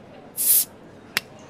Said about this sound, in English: Otherwise, sit back, relax, pop a bottle.